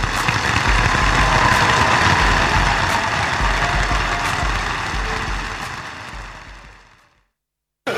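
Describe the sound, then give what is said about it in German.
A small moped engine buzzes steadily and loudly, with a rough low rumble, then fades out and cuts to silence near the end. “Das muss die Zeit gewesen sein, als Friedrich Merz Mofa gefahren ist.”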